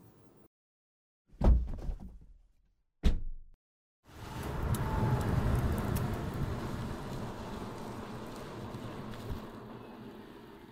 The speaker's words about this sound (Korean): 이 소리는 기후 위기를 심화시키는 내연기관차가 매캐한 매연을 뿜으며 지나가는 소리입니다.